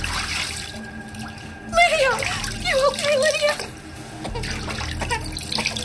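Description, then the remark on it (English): Bathwater sloshes and splashes in a bathtub, a steady wet churning with a brief burst of louder splashing as a baby is lifted from the shallow water, while a voice rises and falls over it midway through. “She plucked Miss Lydia from the water, revealing a round, cherubic face covered in suds.”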